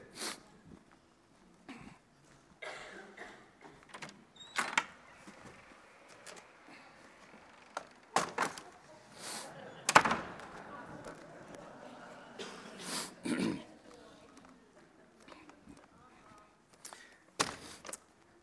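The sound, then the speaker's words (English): A high chair is carried in and set down, with shuffling footsteps, soft scrapes and several sharp wooden knocks and clunks scattered throughout, no talking. “Well, I need to add another chair, so let me go get it.”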